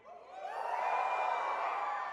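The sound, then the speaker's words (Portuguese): An audience, asked to give a shout to win a victory, shouts together in one sustained, swelling roar. It builds quickly to full volume and holds for about two seconds, a dense mass of voices with no speech standing out. “Se eu dissesse para você assim, dê um grito para conquistar uma vitória.”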